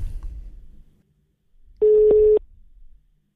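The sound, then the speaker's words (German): A telephone call being placed: after a faint low rumble, a single loud, steady, mid-pitched ringing tone sounds for about half a second, then fades back to quiet. “von The Zone, den rufe ich jetzt mal an.”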